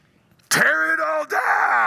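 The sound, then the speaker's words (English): A loud, sustained human yell bursts in after a moment of quiet, strained and voiced with a brief dip before it carries on, sounding like someone crying out at full force from somewhere up above. “And in this majestic scene, it's pierced by a yell from somewhere up there”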